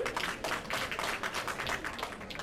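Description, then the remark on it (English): A crowd at a weekly event at the Mullet Man Bar and Grill applauds its proprietor steadily, many hands clapping together in a dense, continuous patter of bright, crisp slaps with no voices over it, holding at an even moderate level throughout. “I think that's earned them a round of applause, don't you?”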